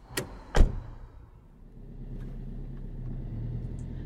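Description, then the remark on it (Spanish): Two car doors thud shut in quick succession as people get into the car, followed by a steady low engine rumble as the car starts off again and keeps driving, fairly quiet. “Nos subimos al carro y arrancamos de nuevo.”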